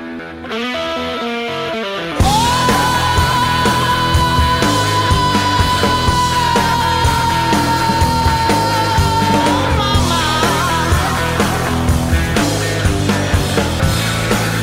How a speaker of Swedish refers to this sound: Och deras debutsingel då, som släpptes som singel mm. på iTunes 12 april 2017, mm. låter så här.